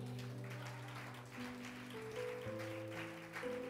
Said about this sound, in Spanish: Denle un fuerte aplauso al rey.